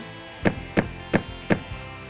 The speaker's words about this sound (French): Oh, on dirait que quelqu'un a frappé à la porte. Oui, je vais ouvrir.